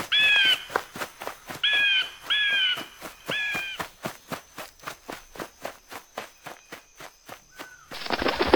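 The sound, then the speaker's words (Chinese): A golden eagle cries out four times, harsh descending calls in quick succession, over a steady rhythm of footsteps that continues after the calls stop, ending in a sudden burst of hiss. “那是一只鸟， 那是金雕。”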